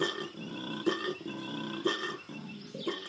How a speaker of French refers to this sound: Toute l'équipe passe plusieurs jours à enregistrer les cris de koalas aux quatre coins du sanctuaire.